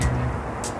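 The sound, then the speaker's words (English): A steady, low buzzing drone from the Moses Saunders Dam, a hydroelectric dam on the St. Lawrence River built in 1958 and generating 850 megawatts for the US and Canada, heard from a catwalk at Hawkins Point. It runs unbroken through the brief moment, a constant mechanical hum with a soft rushing wash over it and no clear voices. “And that buzzing in the background that you can hear is the Moses Saunders Dam,”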